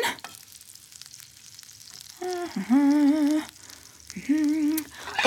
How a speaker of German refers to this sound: Okay, jetzt den Teig verrühren. Und ab in die Pfanne. Kurz warten.